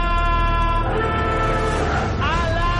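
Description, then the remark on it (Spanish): A loud, continuous alarm siren wails with steady harmonic tones, its pitch shifting and sweeping upward near the end, with traffic-like rumble underneath. “ponga la alarma. Ponga la alarma, nenita, ponga la alarma.”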